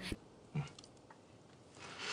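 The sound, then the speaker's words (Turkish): A couple of soft clicks of a spoon tapping a plate as rice pilaf is spooned up, followed by faint scraping and quiet chewing sounds, with no one speaking. “Bayazıt zehirli pilavı kaşıklamaya başladı.”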